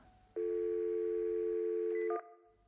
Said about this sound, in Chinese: 我忍不住拨通了电话。